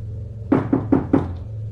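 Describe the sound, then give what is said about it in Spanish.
A woman knocks four firm times on a door in the small hours of the night, in an even, steady rhythm, clear over a low background hum, with no voices. “Los días pasaron y su presencia se hizo evidente, la presencia de esa mujer que tocaba la puerta por la madrugada.”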